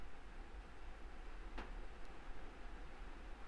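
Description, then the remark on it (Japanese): A steady, soft wash of surf from waves on a beach with Pohaku rock, a continuous hiss with no distinct crash, plus one brief faint click partway through. “ポハクの岩があるビーチそこの波の音を聞いてください”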